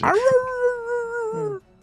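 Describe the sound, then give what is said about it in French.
A single dog howl, fairly loud, rising quickly and then holding a steady, drawn-out tone for about a second and a half before stopping abruptly. “il y a un chien qui se met à oh.”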